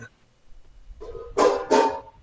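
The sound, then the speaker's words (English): Two sharp, loud metallic clanks of pots knocking together in quick succession, with a softer clatter just before them, as someone washes dishes. “Wow, now we're making pot noises, huh? Now we're doing dishes?”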